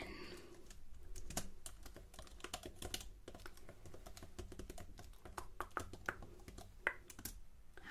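Soft, rapid typing on a computer keyboard during a role-played luxury hotel check-in: irregular bursts of crisp key clicks continue throughout, with occasional louder taps and no voices.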